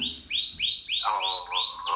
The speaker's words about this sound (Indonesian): itu ada suara burung siapa itu ini biar ada su alam gitu loh kesannya